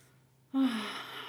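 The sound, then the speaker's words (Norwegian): A sudden, deliberate deep breath drawn in after a moment of quiet, breathy and sustained to the end, with no talking. “Og jeg føler alltid at hvis noen sier sånn Man må huske å puste.”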